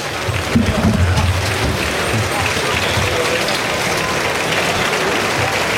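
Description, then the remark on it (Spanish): A bullring crowd in Roquetas, Almería, gives bullfighter Juan Ortega a loud, sustained ovation, dense clapping that holds at a steady level for the whole stretch, with a low murmur of voices mixed in near the start. “Saluda la ovación que le otorga el público de Roquetas.”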